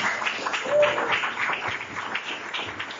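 A crowd applauds steadily for about three seconds, a dense wash of overlapping claps at an even, moderate loudness with no single voice standing out.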